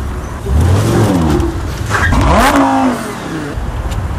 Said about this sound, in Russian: Э, и там, ну, вот давайте поставим, там, конечно, надо смотреть, но определенные, хотя бы звук этой дорогой машины послушаем.